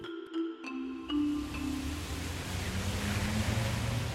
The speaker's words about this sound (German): Unmittelbar nach dem Regenguss steht das Wasser in den Schlaglöchern auf der Fahrbahn. In kleinen Senken sammelt es sich neben dem Bürgersteig Autoreifen lassen es hoch aufspritzen.